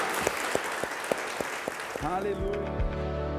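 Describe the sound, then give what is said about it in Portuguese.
A crowd applauds in a dense, steady patter with a few sharper claps standing out, then after about two seconds music with sustained tones comes in and the clapping fades beneath it; applause following a closing prayer. “Você pode dar um aplauso aí no seu lugar.”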